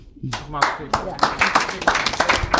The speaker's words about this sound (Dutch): sorry hoor, maar er, er, wordt wat voorzichtig geapplaudiceerd. Ik wil even die ruimte horen bulderen gewoon.